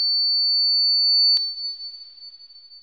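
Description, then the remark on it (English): A steady, high-pitched sine tone rings continuously, depicting tinnitus with sudden hearing loss in the left ear, with a brief sharp click partway through, after which the tone carries on slightly wavering and softer. “They said it was tinnitus with sudden hearing loss in his left ear.”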